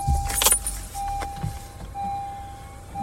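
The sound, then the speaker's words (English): Keys jangle briefly as a car engine in Massachusetts is started to get some heat, turning over and settling into a low rumble, with a steady electronic chime tone running through most of the moment. “I'm going to start the car, though, so we can have some heat.”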